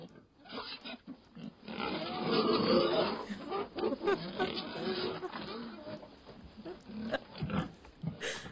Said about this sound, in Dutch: Ik heb het idee dat we naar varkens luisteren.